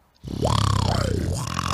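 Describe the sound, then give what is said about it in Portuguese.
A loud vocal snore-like growl made with a rapid rattling click roll technique, held steadily for over a second after a quiet start, with its pitch rising and falling as it goes. “Não, é tipo um ronco. É. Com click roll.”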